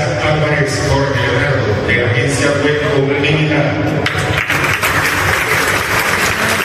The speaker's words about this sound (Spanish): Excelente, la gente aplaude contenta, feliz estaba. Ese cuarto piso de la Puerta del Sol de Cajazán, a propósito, qué panorama tan hermoso en ese sector de Cajazán nuevo.